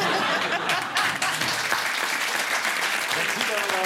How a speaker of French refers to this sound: Je sais pas qui demande d'applaudir.